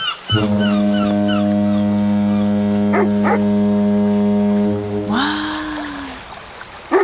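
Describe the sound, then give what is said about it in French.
A boat horn sounds one long, deep, steady blast lasting about five seconds before cutting off, with a few high chirping calls heard faintly around it. “Ah, ça, c'est un bateau.”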